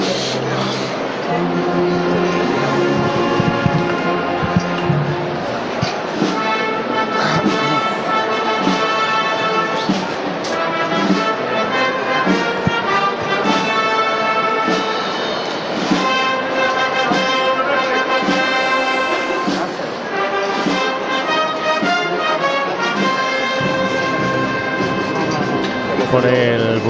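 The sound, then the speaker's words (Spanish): A band plays the slow Holy Week processional march "Nuestro Padre Jesús" as the palio float of Nuestra Señora de la Esperanza turns from Calle Campana into Calle Maestra, with loud, sustained brass chords and steady harmonies carrying on without a break. “pues girando desde la calle Campana hacia la calle Maestra, el paso de palio de Nuestra Señora de la Esperanza a la marcha de nuestro Padre Jesús.”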